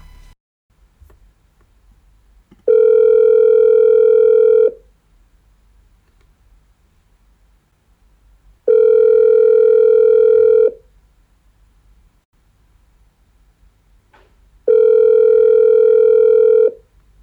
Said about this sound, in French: Puis arrive le jour où je prends mon téléphone, compose le numéro et j'appelle ça sonne.